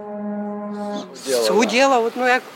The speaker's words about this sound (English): A terrifying way to wake up in Kiev. The chilling buzz of another drone attack on the Ukrainian capital, caught on camera.